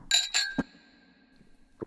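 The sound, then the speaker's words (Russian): Two quick clinks of crystal shot glasses touching in a toast over Armenian cognac, bright, followed by a clear high ring that lingers and slowly fades, with a soft knock or two afterward. “Но надо только чоканье записать с хрустальных рюмок он будет вот он, он будет вот такой, да, вообще.”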